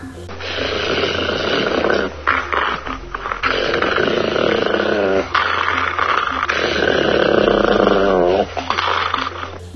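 A dog growls deep and rumbling, loud and nearly continuous, with a few short breaks between long snarling stretches.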